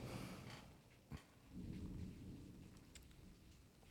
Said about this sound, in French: Entendez l'orage et la pluie en fond,